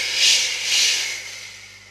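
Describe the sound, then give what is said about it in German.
A voice makes a breathy "shhh" hiss imitating a vacuum cleaner sucking air through its suction tube, swelling twice and then slowly fading over two seconds, fairly loud. “hört Frau Usebuse aus dem Saugrohr. Der Staubsauger saugt wieder.”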